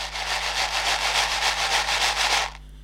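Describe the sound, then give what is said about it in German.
A just-opened packet of Nerds candy, pieces about an eighth to a quarter the size of a Smartie, is shaken in a steady rhythm of about fifteen quick, bright rattling strokes, the tiny pieces hissing and clattering for over two seconds before stopping abruptly. “Hab die Packung aufgemacht und äh, ich, ich mach mal das, schüttel die mal.”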